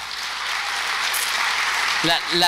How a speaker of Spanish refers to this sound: Un aplauso para